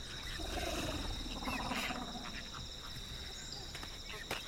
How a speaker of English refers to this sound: Now, as I get closer, I'm picking up a sound, and I hope my mic can hear this low warble that it's making like a strange cooing sound.